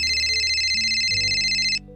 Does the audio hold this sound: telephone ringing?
yes